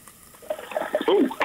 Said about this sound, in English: It, well, I hear it sizzling. Yeah. So we got this going. Let me get some uh, seasoning on this. Can you hear that? Can you hear that on the? You can hear that on the microphone. So it's pretty hot.